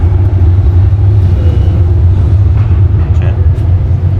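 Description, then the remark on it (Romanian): A heavy tram rumbles past outside, its deep, steady low drone filling the whole stretch at a fairly loud level, with faint traces of voices underneath. “A trecut tramvaiul.”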